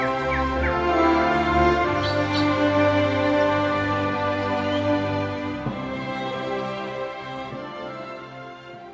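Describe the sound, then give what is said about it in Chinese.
Steady morning ambience on the open ground outside the Yewan Wildlife Conservation Association in Chishang, Taitung, Taiwan, at 8:30 am in September, under a clear, sunny sky: a dense, continuous drone of buzzing insects layered in even tones, with a few short, high bird chirps early on. No one speaks. “这是九月份早上八点半，台东池上野湾野生动物保育协会外面空地的声音。”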